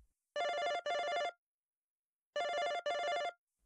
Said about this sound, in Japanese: 最初、自分のスマホが鳴っているのかと思いました。でも違った。鳴っているのは、部屋に備え付けの電話機でした。